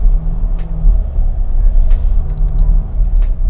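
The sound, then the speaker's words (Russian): A steady low rumble of a car moving slowly over railway tracks at low speed, swaying slightly, with a few soft bumps and clunks spaced out as the wheels cross the rails. “Переезжаем рельсы. Так, вот, на низкой скорости покачиваемся, конечно, немного.”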